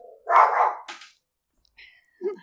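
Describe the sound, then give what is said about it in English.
A dog, Zuzu, reacting to noises outside, lets out a loud, gruff bark and a quick second yap, then after a short pause gives a thin whine and one more short bark. “Zuzu had to protect us from the noises outside.”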